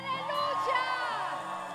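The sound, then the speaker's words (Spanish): An audience shouts a cry of glory to God together, many voices raised at once in a loud, sustained burst of overlapping cries and exclamations for nearly two seconds. “Y de un grito de gloria a Dios.”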